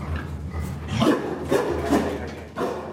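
The door of one of four stables on a pig farm being opened: several rough wooden scrapes and rubbing sounds in uneven bursts, moderately loud, over a constant low hum with no talking.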